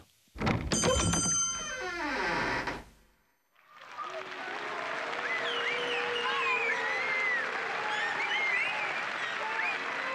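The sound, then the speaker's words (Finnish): A large crowd of young people in 1968 shouts and screams continuously, a dense roar of many voices after a brief resonant ringing clang and a moment of silence. “Kun yksi lopettaa huutamisen, niin toiset jatkavat.”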